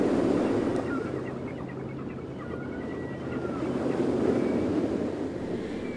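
Steady, rushing wash of Atlantic Ocean waves heard from the courtyards of a mosque built over the sea, with wind gusting across the microphone, a continuous roar that swells slightly midway, with faint indistinct murmurs in the background.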